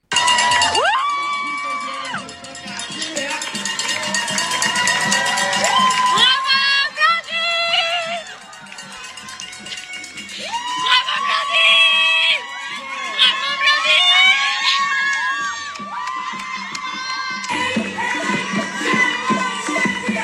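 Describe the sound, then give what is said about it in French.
Loud, continuous crowd cheering at the finish of an 80 km trail race in Chiang Mai, Thailand, as the winning woman runner arrives, high-pitched shouts and whoops rising and falling in waves, dense voices overlapping throughout with a few brief lulls before surging again. “On écoute tout de suite l'arrivée de Blandine en Thaïlande à Chiang Mai dans une ambiance de folie.”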